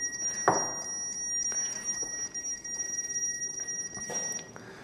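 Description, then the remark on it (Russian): An obstacle detector, registering a door, signals with steady, thin electronic tones and a run of quick ticking clicks, broken by two louder thumping bursts near the start and end. “Хотя сейчас регистрируются какие-то препятствия, но вот дверь.”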